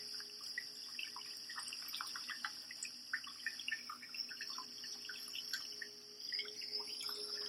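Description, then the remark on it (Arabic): Steady rain with scattered droplets pattering and splashing, over a continuous high-pitched hiss or buzzing drone like insects, a background sound effect, running throughout at an even, moderate level. It is a rain sound from the Nature Space relaxation app. No one speaks. “وفي صوت للمطر مع تأثير صوتي في خلفية”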